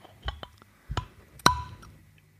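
A glass bottle of non-carbonated iced tea being opened: a couple of soft clicks, then one sharper metallic snap with a brief ringing ping. No fizz follows, and nobody speaks.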